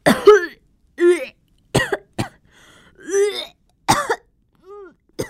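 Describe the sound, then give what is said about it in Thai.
A person retches, gags and vomits loudly, about eight strained, voiced heaves in irregular bursts separated by short silences, the last few weaker and shorter. “เฮ้ยนั่นมันเสียงอวกนี่ทำไมอวกขนาดนั้นล่ะ”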